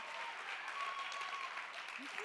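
Steady applause from an audience as a woman pastor makes her way up to the front, dense and even in loudness, with a few faint whoops of cheering rising above the clapping.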